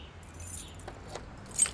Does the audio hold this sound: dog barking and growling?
no